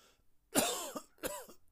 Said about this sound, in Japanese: 夫の咳が止まらない